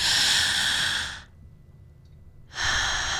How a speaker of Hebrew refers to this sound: הדבר הנוסף זה לשים לב שכאשר הנשימות רדודות וקצרות, אז זה לא טוב. זאת אומרת, זה מגביר את החרדה, ומה שנכון לעשות זה לקחת נשימות עמוקות ומלאות עם קצת מאמץ, ממש...